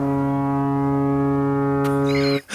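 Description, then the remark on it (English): A loud, steady electronic timer alarm horn, signalling that a debater's time is up, blares continuously for over two seconds with a rich buzzing tone, then cuts off abruptly, leaving a brief burst of noise. “and I will be uh, I'll be running the uh, the timer here, and uh, if you he- once you hear the alarm go off,”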